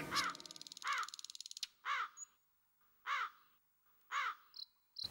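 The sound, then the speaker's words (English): A flock of crows living in a big banyan tree in the village of Singanallur caws loudly and harshly, five or six distinct calls spaced about a second apart, with a rapid rattling buzz early on and faint chirps in between, no voices. “It had a big banyan tree which was the residing place for a flock of crows.”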